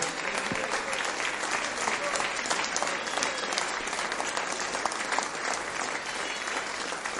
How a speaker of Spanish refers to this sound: fuerte aplauso a nuestro Señor. Amén.